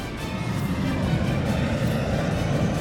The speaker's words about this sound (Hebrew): שרמוטות, זה לא המטוס שלכם שהמריא.